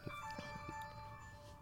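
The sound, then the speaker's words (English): The speaker's phone plays a ringtone, a soft, steady electronic melody of sustained high tones lasting under two seconds, with no voices. “Sorry, that was my phone.”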